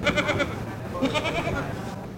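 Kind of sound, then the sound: animal, goat bleating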